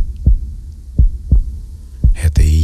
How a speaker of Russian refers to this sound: А теперь нащупай пульс. Приложи руку к сердцу, к руке. Нащупай биение сердца. Тише. Слушай, как оно бьется. Чувствуешь?